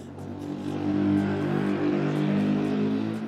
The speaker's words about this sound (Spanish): Acaba de pasar una motocicleta, claro que sí.